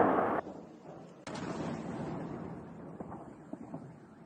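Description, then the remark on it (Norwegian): A deep explosion blast opens into a long rumbling roar at night, followed by a few sharp cracks of machine-gun fire, heard amid steady wind-like noise with no one talking. “Også i natt har det vært mange eksplosjoner, men også en del skyting med maskingevær.”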